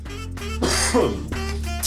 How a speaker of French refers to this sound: Écoutez, je tousse d'abord. Voilà, j'ai éteint le micro pour tousser, excusez-moi.